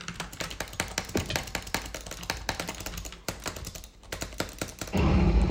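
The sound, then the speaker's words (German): Rapid, crisp computer mouse button clicks rattle off in a fast, uneven stream, dozens in a row, as a player one-clicks with the mouse while gaming, before a louder rushing noise takes over at the end. “Mit dieser Maus, ich kann nicht mehr Butterflyen. Ich muss One klicken.”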